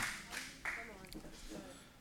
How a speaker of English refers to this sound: Give Jesus a hand clap of praise as you stand to your feet today. Come on.